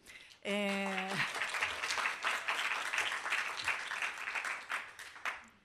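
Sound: audience applauding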